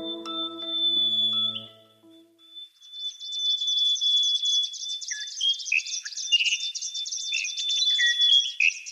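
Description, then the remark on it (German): A dense chorus of Australian bird calls from a recording released as an album, with rapid chirps, trills and a sustained whistle. It sets in clearly after a short low tonal hum and a brief pause. No one speaks. “In den australischen Charts sind vor Weihnachten diese Vogelstimmen in die Top 10 eingestiegen.”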